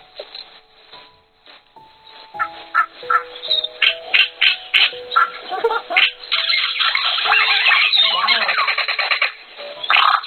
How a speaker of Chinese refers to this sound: 然后还有给你们听一下卡西克鸟的声音。嗯，卡西克，给你们听一个非常有趣的片段，就是这个。